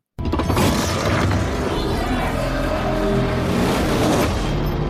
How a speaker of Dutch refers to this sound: Ja, het is een geluid uit een game. Zoveel was de vorige week al duidelijk. Mensen dachten aan Call of Duty, aan Half-Life, maar eh, we horen eigenlijk het Blade Knife, het bekende polsmes uit de Assassin's Creed games.